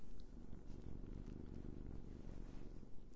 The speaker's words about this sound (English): Yes, that was the sound of her fur and some purring. That was pretty effing cute.